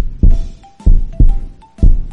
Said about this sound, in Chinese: 哇，哥哥，我听到了，是砰砰砰的心跳声。